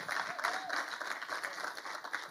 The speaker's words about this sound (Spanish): Ese aplauso debería haber salido mucho antes, ¿eh?